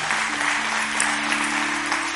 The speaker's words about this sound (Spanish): Dar un aplauso al Señor entonces en esta mañana.